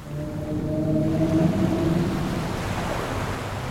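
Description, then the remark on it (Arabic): A sperm whale vocalization: a drawn-out, tonal moan with layered harmonics rises over a constant low underwater rumble, fading after about two seconds while the murky background noise continues. No speech. “لعل حوت العنبر هو الحوت الاكثر شهره على الاطلاق وخاصه بسبب ماده العنبر التي تفرز في جهازه الهضمي وهي لها استخدامات عده طبيه وغير طبيه وعليه اكتسب حوت العنبر شهرته منها ولكن ليس هذا فقط ما يشتهر به حوت العنبر”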